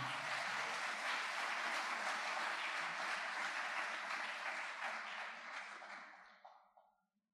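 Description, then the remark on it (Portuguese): A crowd claps loudly and steadily in a dense, continuous wash of applause for Jesus that holds for several seconds, then thins out and fades to silence. “Então dê um aplauso forte para Jesus aí nessa noite.”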